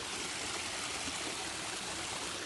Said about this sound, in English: And just because I knew you'd want some background noise, I'm standing next to my waterfall. Can you hear that?